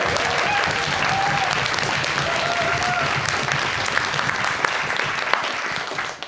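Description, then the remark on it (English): An audience claps steadily for several seconds to welcome the next speaker, a dense, continuous patter of applause with scattered whoops and cheers rising above it, holding at a fairly loud level throughout. “Okay, so I think on that note, I'm a big round of applause, please”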